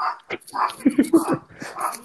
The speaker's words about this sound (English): i'm sorry give me a second my dog's barking